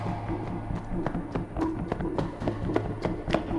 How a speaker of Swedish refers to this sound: Utan att se mig om börjar jag springa igen.